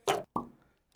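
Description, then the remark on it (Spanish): A beer bottle cap is pried off using the lid of a gel container: a short hissy burst, then a sharper pop that rings out briefly, then quiet with a faint tick at the end. “tengo que tener mil formas de abrir una cerveza”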